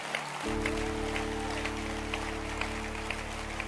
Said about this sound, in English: And tonight, I want to thank God for the person who brought you here. I want to thank you for the sister, for the brother. Clap your hands for anyone who brought anyone here.